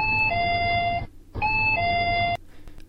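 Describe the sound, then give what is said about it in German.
An electronic two-tone entrance door chime at a 7-Eleven store in Thailand plays twice in a row, each a bright ding-dong with a falling second tone, clear over a low background hum. “Supermärkte wie 7-Eleven in dem Fall etwas unsinnig ist, denn in Thailand ist Supermarkt und 7-Eleven dasselbe. Jeder, der jemals in Thailand war, kennt dieses Geräusch.”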